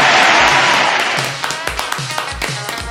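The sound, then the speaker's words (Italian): A short burst of applause at the close of a show on Radio Onda Durto that quickly thins out into a handful of scattered, individual claps, each a sharp, fairly loud slap with a dull thump beneath it. “Vabbè, dai, di solito nessuno applaude, quindi va bene.”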